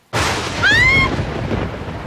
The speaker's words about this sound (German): Ihr seid ganz feucht. Es regnet.